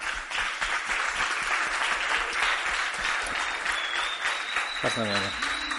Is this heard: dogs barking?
no